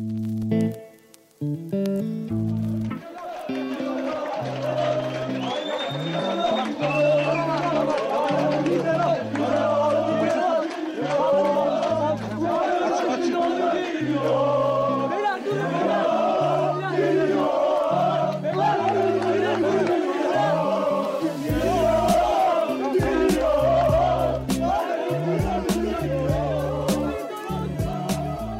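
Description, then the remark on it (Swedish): A dense crowd of Galatasaray football fans roars and chants in a chaotic welcome for Tobias Linderoth as he lands in Istanbul in June 2007, rhythmic shouted chants pulsing over constant loud crowd noise, with scattered whistles and cries throughout. “ni hör här är Galatasaray-fansens kaotiska välkomnande av Tobias Linderoth när han precis landat i Istanbul i juni 2007.”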